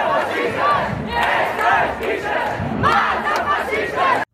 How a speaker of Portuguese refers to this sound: O sonzinho são só eles a gritar, portanto. Sim. Oh, oh, oh, machistas, machistas. É um bocado assim.